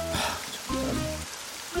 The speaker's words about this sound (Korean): 아니 이게 불면증에 백색 소음이 좋대. 그래가지고 빗소리 찾아서 내가 켜놨어.